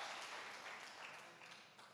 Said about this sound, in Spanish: Y si vos crees dale un aplauso fuerte a Dios, dale un aplauso fuerte a Dios.